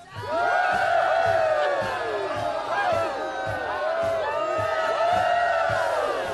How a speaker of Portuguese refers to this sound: Isso aí era pra ser o pessoal festejando, não funcionou como eu, pe... eu, eu, queria.